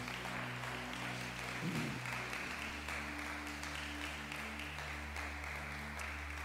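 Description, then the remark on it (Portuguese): A church audience applauding steadily for several seconds as a round of applause for Jesus, a dense wash of clapping over a sustained low organ-like tone, with no talking. “Agora sim, dê a mais linda salva de palmas para Jesus.”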